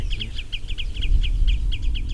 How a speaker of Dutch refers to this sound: Dat was alarm van de tuurluur. Dus eh, die zit hier met een eh, nestje, want er zitten ook jongen. En eigenlijk vloog hij over zijn territorium eh, alarmerend. Ze noemen hem ook de tuut in Nederland. Hij heeft zijn naam niet gestolen.